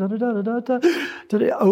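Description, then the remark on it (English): A voice imitates a soprano's sustained singing, then cuts off with a loud, raspy gasp for breath lasting about half a second before the sung tone resumes, clear. “And I've actually heard a rather unconventional soprano do a, a, this on a recital where every time she sang, she would have to gasp over”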